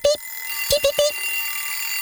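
Countless alarm clocks ring out in a coral garden, which begins to shake: rapid electronic beeping, a quick pair of high beeps followed by a fast burst of three, loud, then a faint steady hum.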